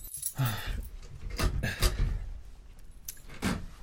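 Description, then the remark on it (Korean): Keys jingle, then a key is put in and turned in a house door's traditional key lock, not a digital door lock, with several sharp metallic clicks spaced over a few seconds. No one speaks. “그래도 난 열쇠가 좋다. 구멍에 맞추고 돌리면 찰칵.”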